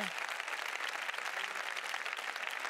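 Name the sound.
audience applauding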